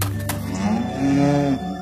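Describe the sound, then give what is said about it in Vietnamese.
A young wild ox calf, badly injured with a deep wound to one leg, bellows in distress in a forest: a long, strained moo with a rich harmonic tone that swells louder midway, then breaks off abruptly before a softer trailing groan. “tiếng gì thế nhỉ nghe như tiếng của một con thú đang bị thương thì phải hoàng tử trẻ tìm khắp nơi trong các bụi cỏ, bụi cây và tìm thấy một chú bò rừng con.”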